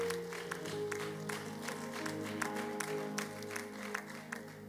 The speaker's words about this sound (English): Celebrate the good Lord with a good clap.